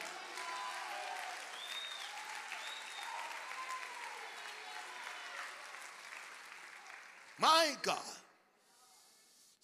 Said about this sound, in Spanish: Alguien déle un aplauso a Jesús.